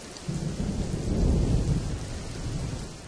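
A thunderstorm with steady rain, low rumbling thunder rolling continuously beneath a dense hiss of falling water, swelling slightly in the middle before easing back.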